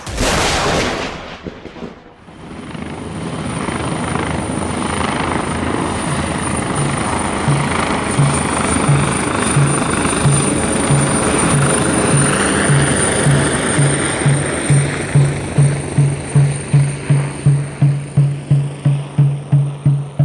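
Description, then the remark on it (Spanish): A loud helicopter passes overhead, its engine roar steady while the rhythmic thump of the rotor blades grows sharper and more pronounced toward the end. No one speaks. “Entonces, yo diría que, de pronto ese, con, con los helicópteros no se ha superado.”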